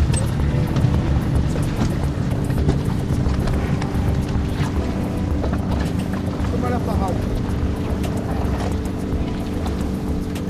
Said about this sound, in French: Nous sommes à bord du Zodiac, au Guilvinec, dans le sud Finistère,